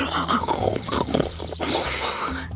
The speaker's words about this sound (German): Seine letzte Mahlzeit lag schon ein paar Tage zurück und langsam bekam er wieder Hunger. Sein Magen knurrte.